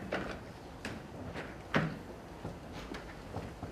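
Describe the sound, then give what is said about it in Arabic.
A chair scrapes and knocks as it is pulled out, with a louder thump midway as someone sits down, followed by a few lighter creaks and taps. “انا صراحه تعبت اذا في كرسي بدي اجلس لا ما حد يقوم لا هذا زايد خلاص الله”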